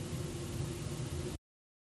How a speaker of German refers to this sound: In Hamburg wartet man mit der Aufzeichnung auf uns. Da hören sie das leere Studio rauschen.